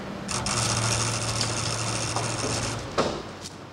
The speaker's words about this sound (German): Die Tür öffnet sich.